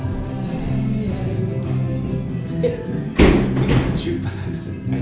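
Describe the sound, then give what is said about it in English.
A door slams hard on one side of the speakers, one sharp heavy bang partway through, while people keep talking over a low background hum. “These slamming doors slamming.”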